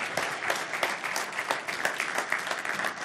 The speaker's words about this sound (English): Would you give him a hand? Thank you.